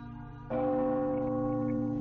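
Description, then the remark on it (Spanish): An ebony clock standing in a velvet hall chimes: a deep strike rings out once, loud and full after a brief lull, its rich tone sustaining and slowly decaying with no voices present. “De nuevo suena el reloj de ébano que se alza en el salón de terciopelo.”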